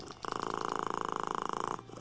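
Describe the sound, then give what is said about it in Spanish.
A cat purrs steadily, a continuous rumbling hum with a fast, even flutter that runs for about a second and a half before stopping. “Oh, este bueno, mira, un gato. un gato ronroneando, cacha.”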